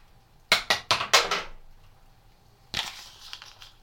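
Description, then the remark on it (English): A Brazil nut drops onto a wooden chopping board, bouncing in four quick knocks. After a short pause comes one more sharp clack with a brief rattling tail. “Brazil nut wooden chopping board.”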